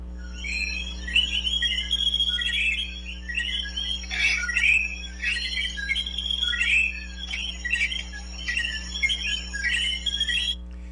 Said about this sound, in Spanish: Esos sonidos de coquí se van a escuchar aproximadamente y ese ambiente como por 40 segundos, faltan 30 segundos más.